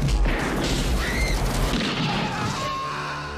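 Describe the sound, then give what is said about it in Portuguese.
Loud, dense action-movie mayhem with gunfire and punches: heavy booming blasts and rumbling impacts fill the whole stretch, with crashing debris and a chaotic barrage, sustained with no clear pauses. “Quanto tiro, quanto soco, né?”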